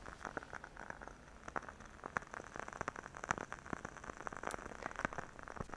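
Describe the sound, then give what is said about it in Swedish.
Soft, rapid crackling from a scented wooden-wick candle burning, meant to sound like a fireplace fire, a steady stream of tiny irregular pops and ticks with no talking. “Det är ju meningen att det här ska låta som en brasa.”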